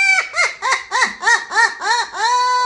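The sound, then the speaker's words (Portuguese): A parrot squawks loudly in a quick run of about eight raspy, rising-and-falling calls in steady rhythm, ending in one longer drawn-out squawk, with no talking. “Barulho de papagaio!”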